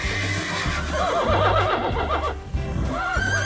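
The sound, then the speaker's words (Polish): A horse neighs with a shaky, rising and falling whinny, repeated in quick bursts over a low rumbling background. It's fairly loud, and no one speaks. “Lubuju koni kożuch szczytkować, a na rianym dniu z nim wyjechać.”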